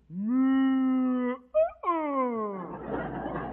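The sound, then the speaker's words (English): A cow named Bessie moos twice: a long, steady, low moo, a brief break, then a shorter moo that slides downward in pitch and fades into a soft hiss. “That's my cow that said that.”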